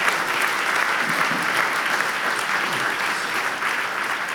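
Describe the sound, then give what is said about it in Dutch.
Sustained audience applause, a dense steady wash of many hands clapping at an even loudness for several seconds, with no voices rising above it. “ik moest ook één keer een applaus lokken. Ik heb er al drie gekregen.”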